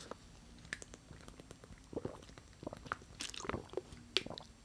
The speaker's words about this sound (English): Ah, water break.